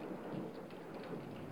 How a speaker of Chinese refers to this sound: 不知不觉已经到了深夜。外面开始下起雨来，连带着的还有闪电。